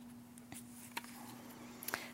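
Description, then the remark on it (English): Soft crinkles and brief crisp snaps of paper sheets being pulled apart as a person separates their paper, a few faint, scattered handling sounds over a steady low electrical hum, with no talking. “Tonight, we heard, if I can separate my paper.”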